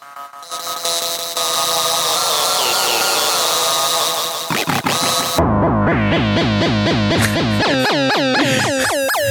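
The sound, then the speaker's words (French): Loud Singamagoop 3000 electronic sound-effect device, whose light sensor varies the sound: dense buzzing, distorted tones with sliding pitch, then a rapid warbling, chirping pattern of repeated swoops, alone with no talking. “Donc le Singama 3000 est ce merveilleux appareil que vous voyez à l'écran pour ceux qui nous regardent en vidéo, avec un capteur lumineux qui fait varier le son.”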